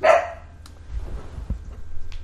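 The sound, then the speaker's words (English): A single loud, sharp dog bark right at the start, followed by a low background rumble with no further barking. “Anyway, my dog lost his mind.”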